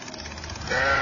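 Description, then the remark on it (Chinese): Sheep bleating from a flock being driven along, a low murmur of baas that swells into a louder, wavering bleat near the end, with no voices present. “过了一会儿，先生又赶着羊群都到了前面”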